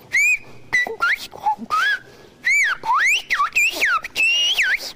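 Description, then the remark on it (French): A single person whistles a rapid string of sliding, rising and falling tones in short bursts, mimicking the rhythm and contours of Occitan speech. Loud and clear, with no talking. “si on veut siffler l'occitan, le français ou l'anglais”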